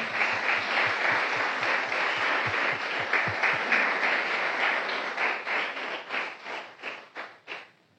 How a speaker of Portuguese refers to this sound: Aplauda o Senhor.